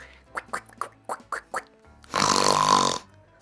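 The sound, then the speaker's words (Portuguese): A voice imitates a sow and her piglets: a quick series of short, nasal oinks and snorts, then one long, loud, raspy snorting grunt that stops abruptly. “A porca fez e todos os porquinhos fizeram.”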